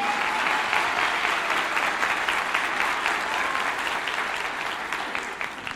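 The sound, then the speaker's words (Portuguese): An audience applauds steadily, a dense wash of many hands clapping at a constant loud level for several seconds, tapering slightly toward the end with no voices on top, applauding three people. “Uma salva de palmas para os três, gente, aqui.”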